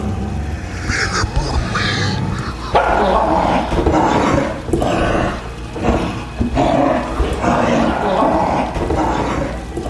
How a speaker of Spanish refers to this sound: Los ladridos de un perro, al parecer enorme, me alteran.